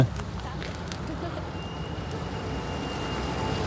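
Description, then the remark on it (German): A thin, high-pitched squeal of car brakes on a street holds steady for a couple of seconds over a constant rumble of road traffic, with faint voices in the background. “Das Quietschen von der Bremse.”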